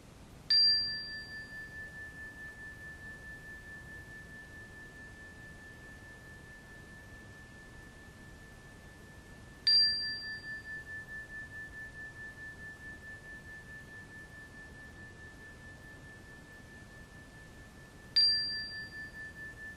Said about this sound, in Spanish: Iniciaremos el ejercicio después de tres golpes en el diapasón y de la misma forma regresaremos el ejercicio cuando se den estos tres golpes.